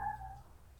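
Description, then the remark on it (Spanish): A single short bark from one of the small dogs at the place rings out in the background, fairly faint and tonal, trailing off after a moment into quiet with no talking. “Disculpan nomás los, los perritos que aquí.”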